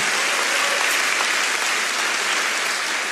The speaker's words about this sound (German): Komm, wir geben Ihnen nochmal einen richtigen Applaus.